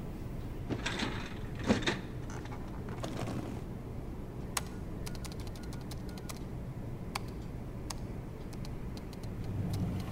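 A file drawer in an office rumbles and slides open early on as files are quickly searched, followed by a string of sharp, scattered clicks like keyboard typing as someone checks a computer, with no talking.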